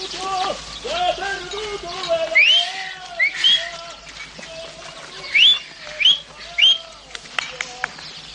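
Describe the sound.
A man calls out to his dogs, his voice followed by a series of short, sharp rising whistles, repeated in clusters, over a faint outdoor background.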